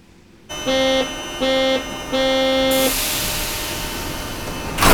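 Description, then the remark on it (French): A Warsaw metro train's door buzzer sounds three times in Warsaw, Poland, two short buzzes and a longer third, over steady carriage rumble, followed by a broad rushing hiss as the train moves. “On va écouter, on, prend le métro et on se retrouve dans quelques secondes.”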